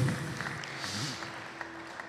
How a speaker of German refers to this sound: Lass uns mal einen Applaus für unseren Herrn Jesus Christus, unserem König, unseren Retter geben. Ihm allein gebührt alle Ehre.